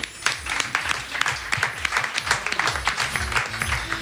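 An audience applauds steadily for a volunteer coming up to play a game, many hands clapping in a dense, continuous patter that holds at an even level throughout, with some faint voices mixed in.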